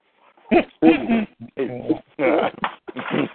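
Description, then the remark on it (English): A dog gives a quick run of about six loud, yelping barks and whines, separated by brief pauses, as someone comes in with food. “He start barking like, "What mine's there?"”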